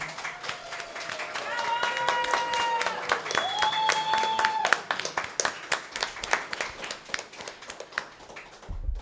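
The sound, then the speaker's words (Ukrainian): A live-show audience in Lviv breaks into sustained applause for themselves, many hands clapping in a dense steady patter, with a few high whistles or whoops rising over it early on before the clapping thins out. “Так що давайте собі оплесками і сусідам, що поруч.”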